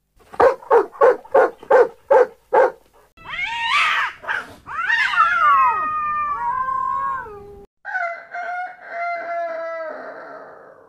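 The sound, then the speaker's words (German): A donkey, dog, cat and rooster, stacked on one another, start making their music together on a signal: a rapid run of about seven sharp barks or bray-like bursts gives way to long, wailing meows and yowls, then a loud, wavering crow, all piling together in a noisy animal chorus without talk. “Wie das geschehen war, fingen sie an, auf ein Zeichen insgesamt an ihre Musik zu machen.”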